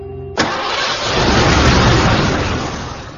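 A car engine cranks and catches with a sudden loud burst, then settles into a steady, rumbling roar, with no voices.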